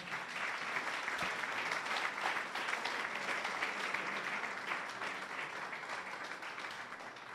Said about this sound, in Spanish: Y ahorita seguimos. Vamos a darles un aplauso de bienvenida.